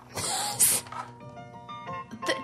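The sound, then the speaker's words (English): A few soft piano notes ring out and sustain, opening a sitcom theme song, preceded by a brief breathy hiss at the start. “I can just turn on the theme song to Cheers.”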